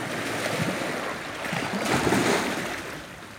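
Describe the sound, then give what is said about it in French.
Strong sea waves break on the shore, heavy surf roaring steadily, a broad wash of churning water that swells toward the middle as a wave breaks and crashes, then eases slightly. No voices, just the continuous rush of the sea. “Quand la mer est là, et quand elle est forte, là on est dans une ambiance même.”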